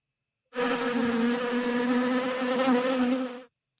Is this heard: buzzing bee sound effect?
yes